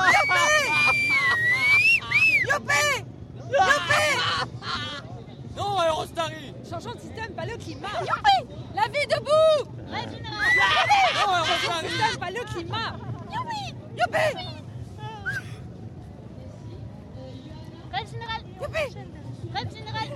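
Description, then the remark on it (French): Open-air crowd chatter of onlookers in a public square that is not very full, in the evening: many overlapping voices, with occasional louder calls rising above a steady low rumble, continuous for the whole stretch. “cette place qui, à l'heure qu'il est, n'est pas très très remplie. Il y a des badauds, des gens de ci,”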